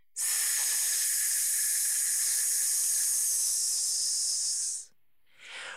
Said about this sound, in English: Take a deep breath in, allowing your abdominal muscles to expand, and then pull them in as you push the air out, making the hissing sound.